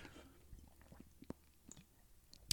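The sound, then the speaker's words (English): Quiet chewing with soft wet squishes and small irregular clicks over a couple of seconds as someone chews basil seeds from a thick lychee-flavored drink, with a sharper click at the end. “I can't just drink it. I have to chew the seeds.”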